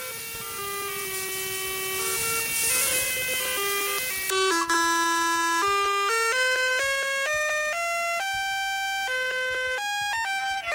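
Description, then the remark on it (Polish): A phone's hold-function melody plays very quietly through the phone's loudspeaker: a simple electronic tune of steady, buzzy tones stepping up and down in pitch, continuing without pause and with no one talking. “Bo, no, powiem jeszcze taką rzecz, że ten hold jest tam, ta melodyjka hold jest troszkę słyszalna przez głośnik telefonu.”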